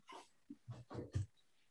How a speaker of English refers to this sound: Sorry about the barking in the background. I have two very stubborn schnauzers.